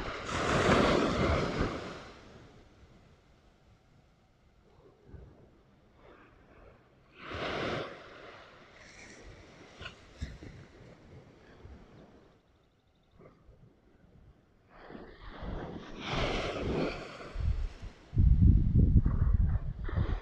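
Waves surge and crash in broad bursts of surf, with quieter lulls between them, while gusty wind rumbles across the microphone. No voices are present.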